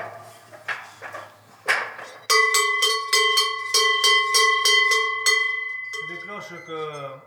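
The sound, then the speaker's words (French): Large Savoie-style cowbells clang, first a few loose knocks, then about ten rapid, rhythmic strikes with a bright ringing tone that lingers, followed by a brief voice at the end. These are Savoie bells, hung one per herd so they carry far. “Ça, c'est les cloches de Savoie.”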